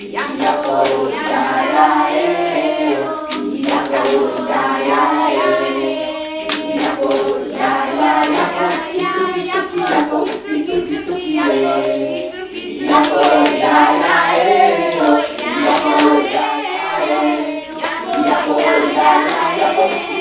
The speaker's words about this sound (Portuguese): A brincadeira Iapo pode ser feita de várias formas e versões. Aqui apresento é a versão da palavra cantada vamos ouvir um trecho da brincadeira cantada com a colaboração das crianças.